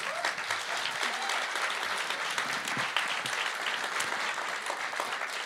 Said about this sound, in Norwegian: Applaus.